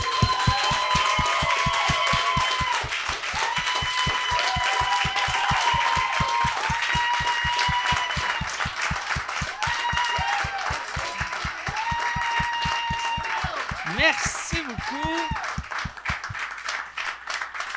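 A crowd applauds and cheers loudly for Alex Perron and Normand Brathwaite for the whole stretch, with claps falling into a steady rhythmic beat under a wash of voices, and a shrill whistle rising briefly near the end.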